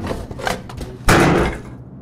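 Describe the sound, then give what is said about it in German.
An angry man swings a hatchet hard onto the grate of a broken, smoking barbecue grill with one loud crash that rings briefly and fades, preceded by a few smaller clanks and knocks. “Mit einem gewaltigen Schwung hämmert er das Beil auf den Bratrost.”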